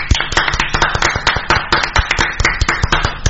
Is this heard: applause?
yes